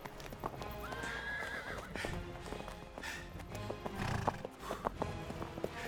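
Light Brigade cavalry horses, including the 13th Light Dragoons and 17th Lancers, advance at a walk down a valley as an engagement begins, their hooves clip-clopping in an uneven, overlapping rhythm over a steady low rumble, with a brief whinny rising early on.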